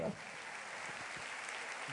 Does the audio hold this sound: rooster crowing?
no